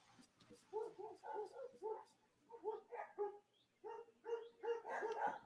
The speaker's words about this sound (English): I couldn't tell if those were my dogs or not my dogs. No, they're the little... dogs outside my fucking window.